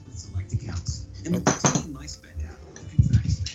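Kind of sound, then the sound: household object, dice being rolled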